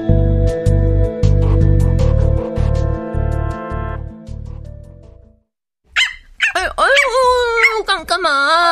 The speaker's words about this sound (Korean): 아, 짖지 마. 이 그만, 그만, 그만. 아휴, 왜? 산책 가고 싶어서 그래?